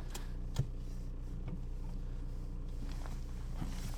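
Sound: car interior driving noise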